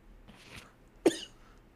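A single sharp cough bursts out after a softer, breathy rasp, as someone sputters after water went down the wrong way. No talking.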